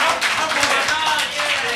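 A short burst of applause, a dense patter of many hands clapping at once, steady and fairly loud throughout, with faint voices mixed in.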